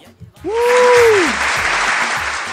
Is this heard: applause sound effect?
yes